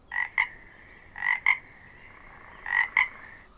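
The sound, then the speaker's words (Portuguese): A toad croaks in three paired calls, each a buzzy rising note followed by a short sharp one, evenly spaced, with no voices present. “Contam que numa manhã de sol escaldante estava a cobra à margem do rio, deitada sobre uma pedra pegando um sozinho matinal, quando de repente apareceu um sapo. Sim, isso mesmo, um sapo”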